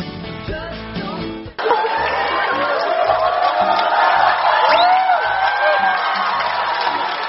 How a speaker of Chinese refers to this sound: 台上的三位到底怎么了，引得全场观众喝彩呢？小文知道《乌龙山伯爵》是部笑点密集的话剧，可是这明明都没演，怎么观众还如此捧场呢？